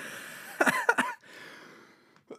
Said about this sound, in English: oh my gosh, I also have a terrible cough.